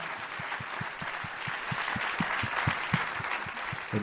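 An audience applauds steadily, a dense wash of many hands clapping with a regular rhythmic clap pattern running through it, fairly loud and continuous with no one talking.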